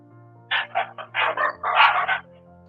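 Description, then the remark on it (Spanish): A dog barks in a quick volley of about seven or eight sharp yaps, fairly loud, with the barks running together near the end. No one speaks. “Como nos maravillaríamos del ladrido de un, perro.”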